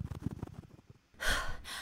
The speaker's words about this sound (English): Were you followed? What? No, I don't think so. Why are you panting?